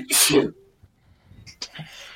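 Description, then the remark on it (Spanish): A single loud, sharp sneeze, a burst of hissing breath with a voiced catch at the end, followed by a short quiet pause and then faint voice sounds. “Qué mierda, estornudo.”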